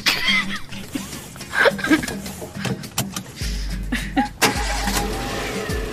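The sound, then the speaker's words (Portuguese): A car engine cranks and catches, then settles into a loud, low rumble as the vehicle pulls away, with clattering bumps and brief bursts of laughter mixed in. “Ele, ele, ele começa a dirigir, assim, ele dirige de uma maneira que vocês acham que vão morrer a cada curva que ele faz.”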